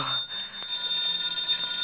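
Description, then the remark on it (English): A telephone rings with a bright, continuous electronic trill that starts partway in and keeps going steadily, clear, with no voices. “The phone. The phone.”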